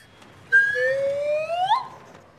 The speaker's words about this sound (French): quand tout à coup, les portes de l'ascenseur s'ouvrirent.